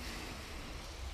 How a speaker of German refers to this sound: man hört das Meer, Meerrauschen, glaube ich, im Hintergrund.